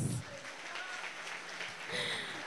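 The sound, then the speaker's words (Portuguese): An audience claps for God in a steady, dense wash of applause, sustained for a couple of seconds, with faint voices and whoops mixed into the clapping. “mas é impossível não pedir aplausos para o nosso Deus.”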